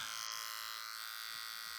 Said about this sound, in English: Have you got a shaver? There? we go, everybody. Can you hear that? Is that a razor? Uh, is that a razor?